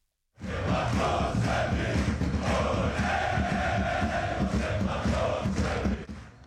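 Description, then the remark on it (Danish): A huge crowd of football fans at Brøndby Stadium chants and roars in unison, a dense, loud, sustained wall of voices that swells with rhythmic shouts for several seconds before cutting off. “det her det er lyden af Brøndby Stadion og deres fans, og de er glade, for de har mulighed for at få rigtig mange penge så frem.”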